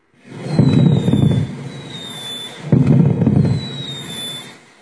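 Two rumbling fireworks bursts, each preceded by a thin whistling streak, boom loudly one after the other with crackling tails and no voices.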